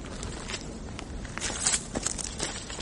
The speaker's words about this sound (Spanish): En ese momento, mientras contemplamos ese árido paisaje, oímos unos pasos. Alguien se aproxima.